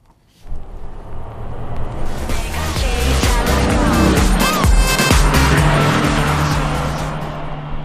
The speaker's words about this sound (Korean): 다시 옆차를 따라갑니다. 자, 차 소리가 들리는 순간부터 집중! 옆차에서 어떤 노래를 듣고 있을지 들어보세요.